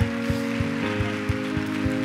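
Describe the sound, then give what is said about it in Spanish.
An audience applauding in celebration of Jesus Christ, a dense patter of many hands with regular heavier beats, over steady sustained musical tones. “Un aplauso expresa la gratitud.”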